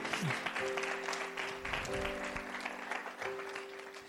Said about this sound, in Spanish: ¿Alguien lo cree? Dale un aplauso fuerte a nuestro Dios.